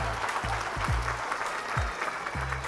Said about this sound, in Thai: ขอเสียงปรบมือให้กับ Adobe อีกสักครั้งครับผม